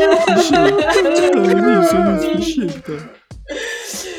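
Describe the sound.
Several voices of a team fake sobbing together, a wavering chorus of exaggerated wails and whimpers that dips briefly near the end before picking up again, loud.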